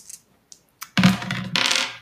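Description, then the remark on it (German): A few sharp clicks, then dice clatter and tumble across a hard tabletop in a bright, rattling burst lasting about a second, fairly loud, with no voices; the roll comes up a five. “Und ich frage dich, wie es dir geht, nachdem ich eine 5 gewürfelt habe.”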